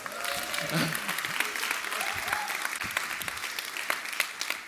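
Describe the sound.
A crowd claps steadily for several seconds, a dense patter of many hands with sharp individual claps poking through, while a few voices murmur underneath.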